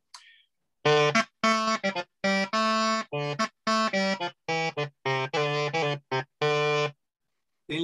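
A crumhorn, a double-reed instrument like an oboe or bassoon, plays a short melody of detached notes with a buzzy, nasal double-reed tone, steady in loudness, with no voices present.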